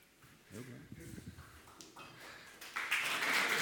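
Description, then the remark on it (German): A man speaks briefly, then a burst of applause for the actors rises and continues steadily to the end, a dense, bright patter of many clapping hands louder than the voice before it. “Ein verdient, wohlverdienter Applaus.”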